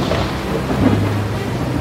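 A sudden thunderstorm over the Caspian Sea rumbles with deep, rolling thunder over a steady wash of heavy rain, loud and continuous throughout with no voices.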